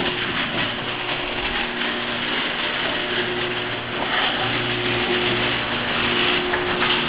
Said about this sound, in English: Oh, come on! Just garage door opener. This is their door.